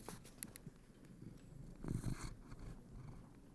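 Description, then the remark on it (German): A fat black cat purrs softly and steadily, a low rumbling drone that swells briefly near the middle with a faint rustle, with no voices. The cat lies on a bed in a bedroom beside an open roof window. “Die schnurrt und gluckst und macht so Geräusche, die Katzen halt so machen”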